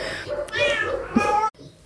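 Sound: cat meowing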